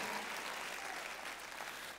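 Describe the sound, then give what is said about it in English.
An audience at a church service claps hands in praise to God, a steady, dense wash of applause that holds at an even level throughout, with no voices standing out. “Come on, would you put an amen on that as you clap your hands and just say amen?”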